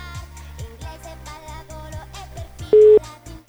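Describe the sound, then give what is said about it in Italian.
A single loud, steady telephone ringing tone sounds briefly on the line near the end, over continuous background music with a plucked, rhythmic bass. “Squilla. Sentiamo. Sentiamo se risponde.”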